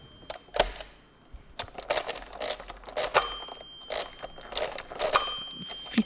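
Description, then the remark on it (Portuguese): A hand-cranked mechanical calculating machine clatters as it is worked, with sharp ratcheting clicks and clunks in irregular bursts, fairly loud, with no voices. “Eh, esta máquina de calcular já existia.”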